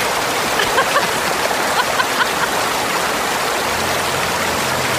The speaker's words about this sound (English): you would hear a waterfall only in one ear